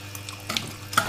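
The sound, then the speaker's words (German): Water streams steadily and very evenly from the precision shower screen of a La Marzocco Linea Mini espresso machine, a soft hissing flow with a few brief louder spurts and splashes, and no voices. “Also, wenn du dir das, das anguckst, wie das so Wasser da rausläuft, ne? Einfach aus der Dusche.”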